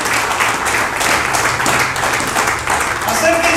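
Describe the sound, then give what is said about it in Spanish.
An audience at an afternoon church service breaks into loud, sustained applause for God, a dense wash of many hands clapping steadily throughout, with scattered voices mixed into the noise. “Y pueden aplaudirle fuerte a nuestro Dios en esta tarde.”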